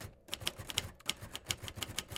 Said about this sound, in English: Here's a uh, this is um this is just um, this is a weird one because this is just typing, but it's me typing. It's not a sound effect I bought or anything.